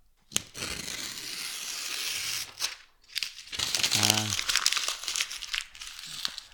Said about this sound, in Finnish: Kuulostaa, kuulostaa siltä, että revit paperia.